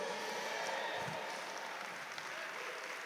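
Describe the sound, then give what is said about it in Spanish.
Steady applause from a crowd clapping in praise of God, a dense continuous patter of many hands clapping at a fairly even loudness throughout, with no voices standing out. “Sí, dale un fuerte aplauso a Él.”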